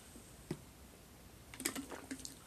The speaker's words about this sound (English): Oh, my mouth is dry. You know what? Let me get a swig of water so I can read it properly so you guys can hear me. Forgive me for the gulp.